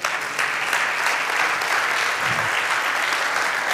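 An audience at a church sermon breaks into steady applause for God, a dense, continuous wash of clapping that holds at an even loudness throughout, with no voices standing out above it.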